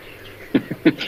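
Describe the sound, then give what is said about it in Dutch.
A little bittern gives a few short, low barking calls in quick succession, sounding like a dog yapping somewhere in the distance, with no voices present. “Eh, ja, daar, daar een vogel die klinkt als een hond en die aap heet.”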